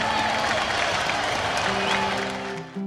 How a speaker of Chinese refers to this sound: 我要给社交场所永远的噩梦奖项颁发冠军。让我们一起用热烈的掌声恭喜理发店！